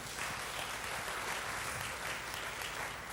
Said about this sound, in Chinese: 再一次给他们一个热烈的掌声。